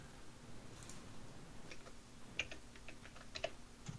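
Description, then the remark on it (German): Irregular typing on a computer keyboard, a scattering of crisp key clicks at uneven intervals over a steady low background hum, with no voices. “Man kann da aber nicht gut tippen im Warp-Modus.”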